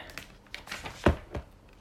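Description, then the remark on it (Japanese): Plastic packaging on a second disc box being unwrapped: soft, irregular crinkling and rustling with a couple of sharper crackles standing out, fairly quiet overall and with no talking. “じゃあもう一個も開けましょうかね”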